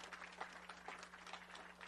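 A standing church audience gives a big hand clap to the Lord in gratefulness and thankfulness for a church member, many hands clapping in a dense, steady, soft patter, with a faint low hum running underneath and no talking.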